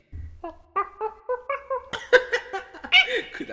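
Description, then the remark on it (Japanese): A person imitates Diddy Kong's monkey cry with a quick series of about eight high, squeaky voiced hoots rising in pitch, ending in louder breathy screeches, fairly loud with no talking. “これこればっかりはお世辞抜きでやっぱり上手だと思います、ね、素晴らしい機能だと思います猿の声がね”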